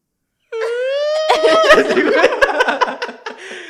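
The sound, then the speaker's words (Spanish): A voice imitates a high, wavering whimpering cry, a drawn-out whine that soon dissolves into close, breathy laughter mixed with the crying sound. “Y se puso a llorar, güey.”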